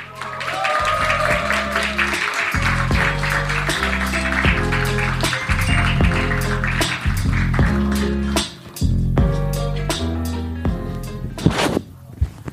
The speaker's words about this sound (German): Und apropos sensationell aussehen, begrüßt mit einem herzlichen Applaus unsere beiden Looney Tunes, ja.